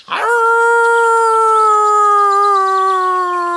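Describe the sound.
A single long wolf howl rises quickly and then holds a steady, slightly falling pitch for several seconds, loud with no talking over it.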